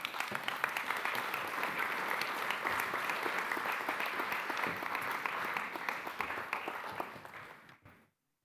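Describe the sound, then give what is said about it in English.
A crowd applauds steadily as group leaders come forward, with dense, overlapping claps that hold at a fairly loud level for several seconds, then taper off and fade out near the end. “Let's give them a round of applause as they come up.”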